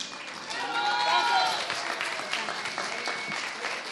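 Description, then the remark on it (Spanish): An audience claps steadily for several seconds as performers are invited up onto the stage, a dense patter of applause with some voices and cheers mixed in beneath it. “Porque que suban para presentarlos, porque ese rato no les aplaudimos como debíamos.”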